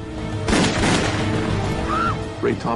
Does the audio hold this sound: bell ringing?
no